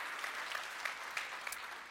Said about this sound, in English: Come on and clap your hands all over the room today.